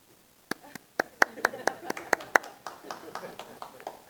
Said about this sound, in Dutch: Noemen ze ook wel een golfklep.